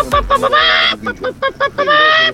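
A hen clucks loudly, with a quick run of short clucks and then a longer, drawn-out squawk. A few more clucks follow before another sustained cackle.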